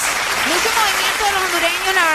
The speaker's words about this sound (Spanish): Felicitaciones, se lo merecen. Es más, les aplaudimos, ¿ok?